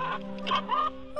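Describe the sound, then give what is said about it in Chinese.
A mother hen clucks to her chicks in a quick run of short, throaty calls, rising into a couple of louder, higher notes before trailing off, with no talking over it. “啊，是鸡妈妈啊，在叫她的孩子呢。”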